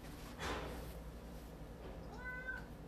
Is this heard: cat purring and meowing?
yes